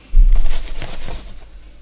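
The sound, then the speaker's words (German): Breaded food is laid into hot oil in a pan and immediately starts a loud sizzle, a steady hissing with crackling pops that eases slightly toward the end. “So, jetzt legen wir die in die Pfanne.”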